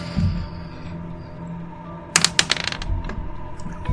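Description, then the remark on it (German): Dice are rolled onto a hard surface in a quick burst of sharp clicks and rattles, lasting about a second, fairly loud over a faint low hum. “Es müssten alle würfeln.”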